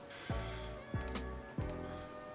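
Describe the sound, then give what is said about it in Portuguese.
A few quiet clicks and taps of typing on a keyboard and clicking a mouse come in small irregular bursts with soft low thumps and no talking. “Inclusive, o, o teclado e o mouse estão bem perto do mouse quando você tá digitando e, e clicando.”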